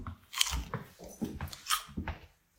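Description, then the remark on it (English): Crunchy chewing of a raw carrot: a quick run of sharp, crackly bites and munches, uneven in rhythm, fairly loud, with no talking over it. “And more importantly, I'm just finishing off this carrot.”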